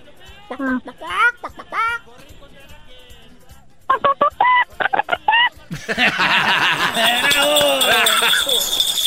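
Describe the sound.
A child's voice on a phone call imitates a chicken on request, making a quick series of short, choppy clucking bursts, followed by a louder, noisier stretch that sounds like laughter or excited commotion.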